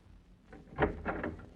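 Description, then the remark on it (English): A door is flung open with a quick clatter: a sharp knock followed by a couple of rattling thumps, fairly quiet, with no one speaking. “I'm going to try the door. I'm all set. Fling her open if she isn't locked.”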